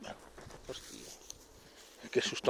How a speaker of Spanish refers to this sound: un perro.